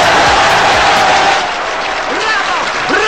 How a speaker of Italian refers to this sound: 92 minuti di applausi!